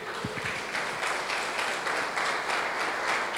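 A church audience applauds for God steadily, dense overlapping claps forming a continuous, even wash of sound at moderate volume with no talking over it.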